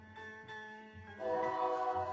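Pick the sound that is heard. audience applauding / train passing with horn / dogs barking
train passing with horn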